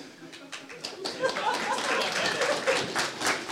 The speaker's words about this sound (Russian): Аплодисменты товарищу Сталину!